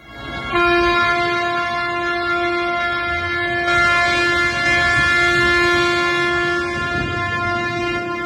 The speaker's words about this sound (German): So hörte es sich gestern auf Stuttgarter Straßen an, als hunderte Traktoren und Lastwagen in die Innenstadt fuhren.